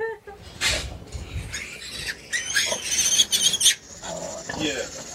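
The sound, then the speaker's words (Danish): A litter of small newborn piglets squeals and grunts in a jostling jumble as they fight over their mother sow's milk, with sharp high-pitched squeaks breaking out repeatedly over several seconds of continuous scuffling. “de ligger og slåsser om, om mælken fra deres mor, som I nok kan se.”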